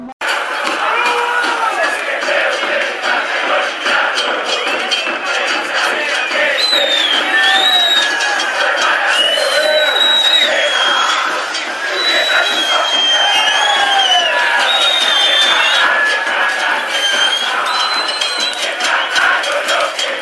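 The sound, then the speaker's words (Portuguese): A large crowd of Atlanta football supporters (Los Bohemios) chants and sings in unison a provocative chant aimed at the funebreros, loud and dense, with overlapping shouts and whistles carrying on without pause throughout. “a Enteada de Atlanta cantou esse cântico que vocês vão, vão, vão escutar logo em seguida.”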